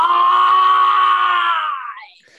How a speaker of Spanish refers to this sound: La próxima vez que vuelvas a gritar